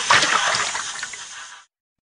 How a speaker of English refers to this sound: The water jet, please, Miss Rabbit, orders the dentist. He uses the water to clean Mr. Dinosaur's teeth. Slush, slush, slush.